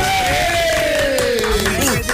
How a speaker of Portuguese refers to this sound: Bem, Vamos aplaudir. Beleza!